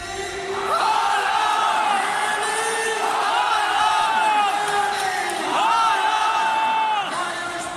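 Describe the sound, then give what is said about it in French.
A large stadium crowd of football fans roars and cheers continuously for Haaland as he raises his arms toward them after scoring a hat-trick in his first Champions League match, with rising swells of chanting voices around the one-second and six-second marks, loud and sustained throughout. “Les fans répondent et Haaland, les bras en l'air, le regard vers la foule, en demande encore.”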